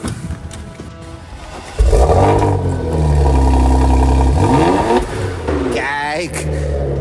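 A car engine cranks and catches, then idles loudly with a steady drone before being revved hard a couple of times, the pitch sweeping up and falling back.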